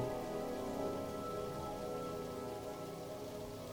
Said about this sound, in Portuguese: E conforme tu continua caminhando por esse espaço, sente que o barulho da água vai aumentando e te chamando. E ali perto da tua visão, tu já enxerga um pequeno córrego, um rio que se forma